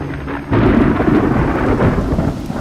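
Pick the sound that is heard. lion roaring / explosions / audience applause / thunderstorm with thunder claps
thunderstorm with thunder claps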